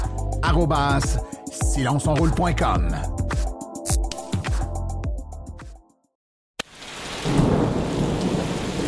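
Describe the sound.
Heavy rain hisses steadily during the last few seconds, with a low thunder rumble, after a short silence that follows a busy stretch of voice-like tones.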